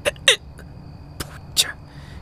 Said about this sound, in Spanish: qué no se va este hipo?